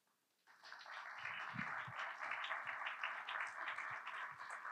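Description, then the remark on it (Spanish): An audience bursts into applause, a dense, steady wash of many hands clapping that starts abruptly after a brief quiet and holds at an even level to the end. “¿Saben qué les gustaría a ellas más que ese aplauso?”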